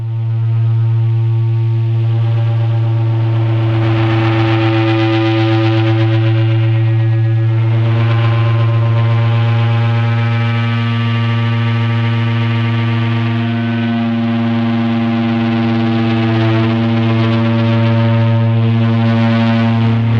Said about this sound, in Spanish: Estamos escuchando Give Me Some Feedback, realizada entre 1991 y 2015 para retroalimentación controlada por saxofón y pedales más delays, retrasos, de Ulrich Krieger, 1962, Alemania.